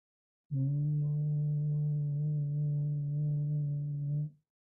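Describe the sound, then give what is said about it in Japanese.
A person with a right hand resting lightly on the throat hums one low note as softly as possible as a voice exercise, holding it steadily for about four seconds at an even pitch and volume before stopping. The hum is heard alone, with no talking. “そして、適当な音をハミングしてください。”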